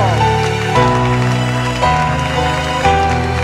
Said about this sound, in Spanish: Aplaudan a Jesús.